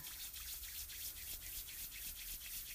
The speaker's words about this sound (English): Rub your hands together. Get that energy going, get that warmth going and just place your hands somewhere on your body.